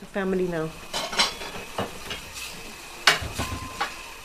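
Dishes clink and clatter as a woman puts them away at the sink in her small white-walled house, a run of sharp knocks, with a brief voice-like tone at the start and soft kitchen noise between the impacts.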